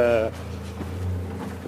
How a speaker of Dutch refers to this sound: Hier komen auto's langs.